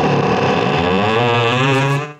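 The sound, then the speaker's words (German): A creaking door gives one long, loud, buzzy groan whose pitch slowly shifts over about two seconds before trailing off, with no voices. “Die Antwort das ist eigentlich knarren die Tür.”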